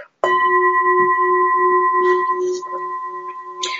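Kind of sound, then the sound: sound effect, gong being struck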